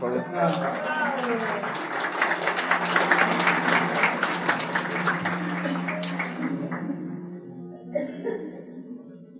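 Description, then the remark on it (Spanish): An audience claps steadily for several seconds for a sister of the church who is coming forward, a dense crackle of many hands with a few faint laughs mixed in, before the applause tapers off and a voice begins to speak. “Denle un aplauso a la hermana.”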